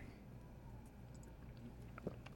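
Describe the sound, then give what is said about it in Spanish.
A quiet sip of coffee, soft wet mouth sounds and a small slurp near the end, with no talking over a low background hum. “Y con este sorbito de café delicioso”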